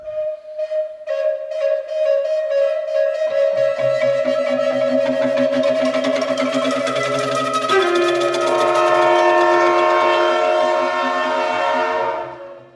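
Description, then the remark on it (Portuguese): A freight train's horn blares loud in one long sustained chord that deepens and shifts partway through, with the heavy rumble of the passing train beneath it and no voices. “o cargueiro estava vindo. E a gente só se deu conta com a buzina do trem.”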